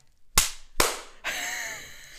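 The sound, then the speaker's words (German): Sharp hand claps for syncing a recording, made after pressing record: two loud, snappy claps about half a second apart, then a third that trails into a steady, hissy wash of sound. “Ich habe Aufnahme gedrückt und klatsche.”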